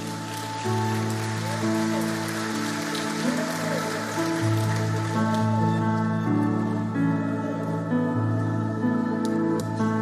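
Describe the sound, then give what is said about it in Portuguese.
A church audience, standing in worship, applauds in a dense, steady patter of clapping that lasts the whole stretch, layered over sustained keyboard chords playing slow, held notes. No one speaks. “Pode aplaudir.”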